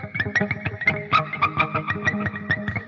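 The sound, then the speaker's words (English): An effects-laden electric guitar imitating the chirps the guitarist played on the album tour squeaks out rapid, bird-like chirps, a busy stream of short bright bursts over a distorted, echoing wash of sustained tones, with no voices. “He did mm-hmm. all kinds of different chirps with it, and it sounded like they were in a in some kind of a a bird sanctuary.”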